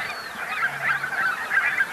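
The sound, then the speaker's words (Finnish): A flock of geese calls continuously, barnacle geese barking with tundra bean geese among them, a dense overlapping chorus of honks and higher yelping notes, steady and moderately loud without any voices. “Ja siinä on tunrahanhia joukossa.”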